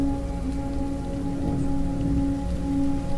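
Steady rain falls and patters on a hard surface, a dense continuous wash of droplets with a low hum underneath. No one speaks.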